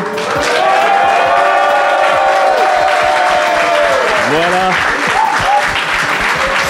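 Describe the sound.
An enthusiastic live audience cheers and applauds loudly throughout at a special edition of the French show Studio 404, with dense steady clapping and rising, falling whoops and shouts; a single word is spoken over the noise.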